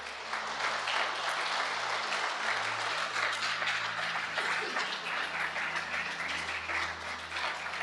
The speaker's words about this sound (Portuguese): Você pode dar uma linda salva de palmas para Jesus?